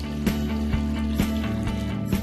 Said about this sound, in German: Zwei Kilogramm Dünger werden mit 10 Litern Wasser vermischt. Später wird noch einmal mit Wasser aufgefüllt.